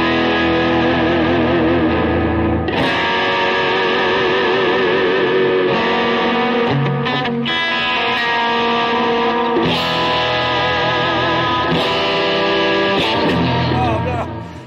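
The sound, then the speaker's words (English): Loud, distorted electric guitar played through a Vegatrem tremolo rings out in sustained chords and notes whose pitch wavers and dips in wobbling bends, playing continuously with no voices, then cutting off at the end. “This Vegatrem, you guys, in this guitar, holy crap. Holy crap, man. Listen to this.”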